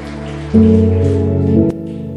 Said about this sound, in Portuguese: Você que é uma obra iniciada por Deus, levante as mãos, aplauda, glorifique bem forte o arquiteto da sua vida.